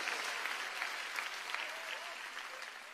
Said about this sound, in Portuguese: Quem crê, quem está recebendo, quem recebe a palavra, dá uma salva de palmas ao Senhor.